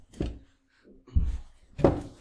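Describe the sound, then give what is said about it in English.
Loud mechanical handling noises as the bolts on a microphone mount are tightened: three separate bursts of thumping, creaking and rattling with short pauses between, and no one speaking. “And I'm going to once again tighten the tighten. Wait, that was a normal voice? The bolts on my microphone so it doesn't stop”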